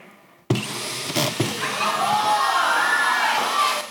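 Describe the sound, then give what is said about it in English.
A drill motor abruptly starts up and runs steadily in a loud whine, with a couple of brief clicks early on and a slight rise in pitch as it keeps going. “Yeah, you're asking yourself, is this a real drill or a fake drill?”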